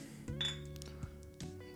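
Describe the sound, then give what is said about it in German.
Glasses clink together in a toast, a few bright ringing taps with lingering tonal resonance, no one speaking over them. “Voll das äh, filigrane Gekloppe hier.”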